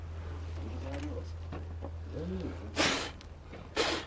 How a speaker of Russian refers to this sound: Булькает внутри, слушай, булькает, это плохо.